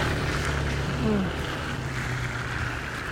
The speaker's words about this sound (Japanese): うん、今朝は雨降ってるね。